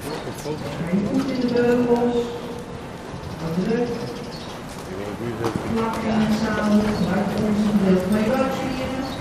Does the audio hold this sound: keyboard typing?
no